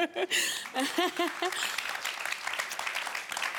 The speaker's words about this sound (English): I think it's very good to have a moment of applause and let that sink in.